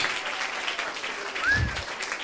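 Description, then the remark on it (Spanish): An audience applauds for the speaker's young helper in a steady, dense patter of many hands clapping, sustained at a moderate level throughout, with a brief cheer rising through the middle. “Un aplauso para mi ayudante.”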